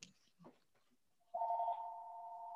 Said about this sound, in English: Oh, there's so many phones around me.